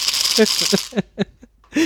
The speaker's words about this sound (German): Äh, viele Würfel in Plastikbechern, die alle gleichzeitig quasi gespielt werden.